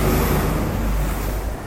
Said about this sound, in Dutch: Oh, ik loop, er komt een vrachtwagen aan.